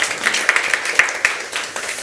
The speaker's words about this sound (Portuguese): Palmas para o embaixador